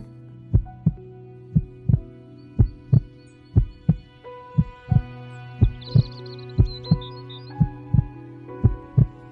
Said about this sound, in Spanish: Siente cada latido.